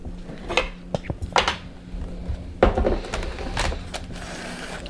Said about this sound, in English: So let me get a knife and cutting a cutting board.